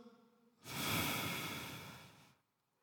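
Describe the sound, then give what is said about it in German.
A single long, breathy exhale demonstrating breathing out, lasting under two seconds, fairly loud, with a broad airy hiss that fades out gently at the end. “Ausschnaufen”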